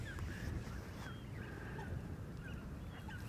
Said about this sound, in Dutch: Ja, dit is prachtig. Zoveel vogels in de lucht. Ja, dan kun je ook een beetje voorstellen, want 20.000, dan denk je nou het zal wel. Maar als ze omhoog gaan, dan zie je dat het echt om duizenden vogels gaat. Hè? Gigantisch.